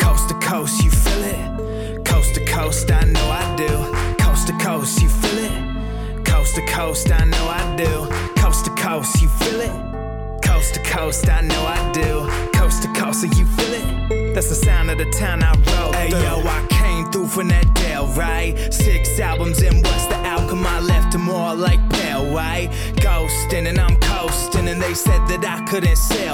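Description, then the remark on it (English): A rap song plays at full volume on the Ville Radio Show, with a repeated sung hook giving way to a rapped verse over a steady, punchy beat with thick bass and brief drop-outs. “We'll be right back after this song.”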